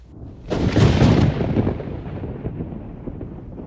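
A sudden loud thunderclap cracks in after a brief quiet, then rolls off into a long, rumbling decay that fades gradually over several seconds, with no voices.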